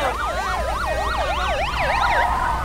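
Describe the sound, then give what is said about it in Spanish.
An ambulance siren wails in a rapid rising-and-falling yelp, loud, layered over a low engine rumble with no voices. “¡A por la ambulancia!”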